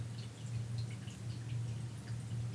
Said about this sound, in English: You hear that? You probably can. This thing picks up everything. I got a little indoor waterfall. I like having the sound of water around me all day. Feels good.